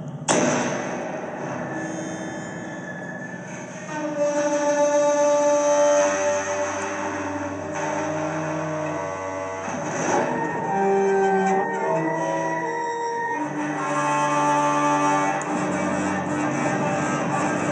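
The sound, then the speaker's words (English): An ebow drones on a spring reverb from a guitar amplifier, giving sustained metallic tones with shimmering, shifting overtones and a washy, reverberant tail. The sound is steady and fairly loud throughout, with no voices. “Also, sometimes I'll play with the ebow.”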